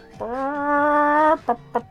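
A chicken lets out one long, drawn-out squawk followed by two quick, sharp clucks, close and clear with no other sounds around it.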